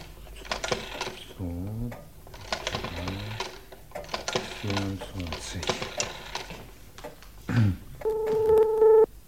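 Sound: telephone ringing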